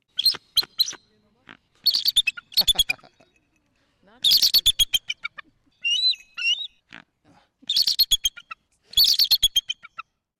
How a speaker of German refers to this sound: So, und Sie hören wahrscheinlich ganz genau, wer das ist, den wir da gerade gehört haben. Genau, das ist unser Weißkopfseeadler